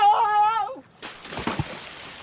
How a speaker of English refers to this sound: There was a cry, the noise of something falling into the river, and then nothing but the palmist's tall hat moving round and round on the water.